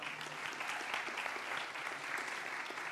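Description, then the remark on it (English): Steady, sustained applause given to God from a crowd of many hands clapping, a dense, even wash of claps holding the same level for the full three seconds with no voices standing out. “Just give God a strong hand clap for that.”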